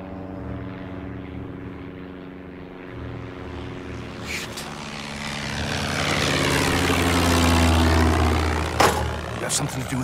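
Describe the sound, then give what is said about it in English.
A propeller scout plane about 100 yards out drones steadily and grows louder as it heads this way overhead, its low engine hum swelling and sweeping through the final seconds with a brief sharp clatter. “Sir, an Enforcer scout plane's been spotted about 100 yards out. It's, it's headed this way.”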